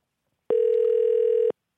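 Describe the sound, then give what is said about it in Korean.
A single steady telephone ringback tone of an outgoing call to a listener plays for about one second, a clean sustained electronic beep with no voices over it. “전화 아, 한번 걸어주시기 바랍니다.”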